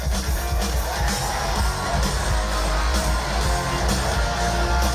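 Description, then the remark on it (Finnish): A loud live rock performance by a band with a guest singer, thick with heavy bass and pounding drums, while a large crowd roars and cheers underneath the full band sound. “Ja Rick siinä sitten … kanssa vetää.”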